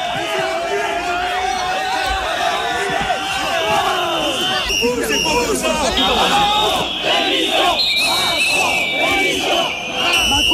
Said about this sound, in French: des sifflets, des, insultes et de nombreuses scènes d'une rare violence. Emmanuel Macron forcé de déambuler dans les allées avec un large périmètre de sécurité autour de lui.